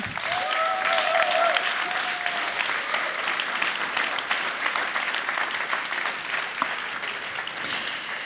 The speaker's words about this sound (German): Und deswegen begrüßt bitte mit mir mit einem herzlichen Applaus